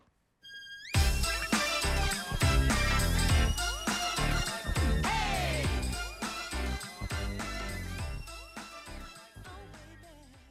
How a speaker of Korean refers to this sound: 네, 노래 잘 들었습니다.